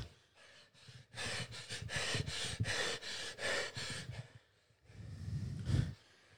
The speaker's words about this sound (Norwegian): Nå skal vi bare høre på pusten